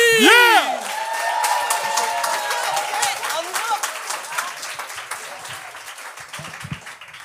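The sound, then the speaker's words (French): A live comedy show crowd bursts into loud applause with cheers and whoops as the first comedian is introduced, clapping steady and dense throughout, while a few shouts rise over it before it gradually thins out. “Un tonnerre d'applaudissements pour le premier”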